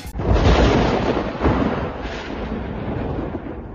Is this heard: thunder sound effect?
yes